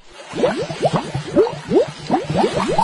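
Small fish in a river blow many bubbles up through the water in a rapid stream of short, rising bloops, a steady, lively bubbling that goes on throughout with no voices.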